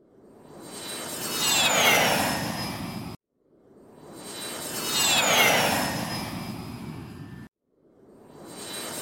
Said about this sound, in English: Why, it's Elon Musk's jet again.